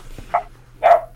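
Two short, high-pitched puppy barks a moment apart, the second louder and fuller, with a faint steady hum underneath and no talking.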